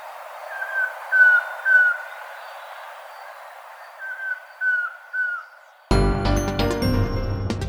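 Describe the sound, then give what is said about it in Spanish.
A collared trogon calls in two short series of three soft, clear whistled notes over a faint hiss, followed abruptly by music near the end. Recorded in Valle del Cauca, part of a bird sound bank compiled by the Instituto von Humboldt and Cornell University. “Esta grabación del trogón collarejo fue captada en el Valle del Cauca y forma parte del banco de sonidos de aves recopilado por el Instituto von Humboldt y la Universidad de Cornell.”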